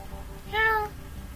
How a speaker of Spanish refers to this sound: Caminaba por el pasillo. Cuando oí a mi gata maullando.